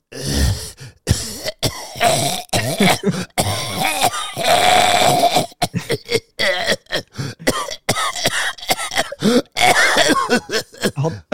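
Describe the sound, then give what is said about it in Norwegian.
A voice imitates the wet, gurgling coughs deep in the throat of a masked man sitting beside the speaker on a subway train, a loud run of rasping hacks and throat-clearing bursts broken by short pauses, with no words spoken. “Jeg tror han hadde kols eller noe sånt, for jeg har aldri hørt så mye surkling og, og sånn der eh, hosting langt bak i halsen.”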